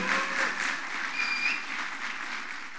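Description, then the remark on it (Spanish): A church audience applauds God steadily, a dense wash of many hands clapping at an even level throughout, with faint whistle-like tones drifting over the noise and no talk. “Y dale un fuerte aplauso a Dios si sabes que eso es así seguro.”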